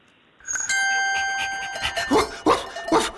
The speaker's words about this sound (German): Der Hofhund der ist auch ein bisschen übermotiviert.